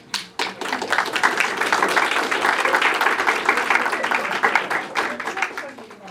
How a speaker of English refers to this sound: clapping for everybody else. What was that? We, you should, you can clap for yourselves, why not? I'll just, I'm gonna clap for you. I'm clap for you.